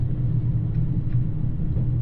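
Steady low rumble fills the interior of the Dosan Line limited express Nanpu No. 26 at speed between Tosa-Yamada and Awa-Ikeda, with a faint mid-range hiss and no voices or distinct events.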